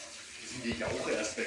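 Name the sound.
tap water running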